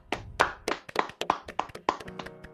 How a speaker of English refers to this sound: Will we clap. Will we clap for them? Let's clap.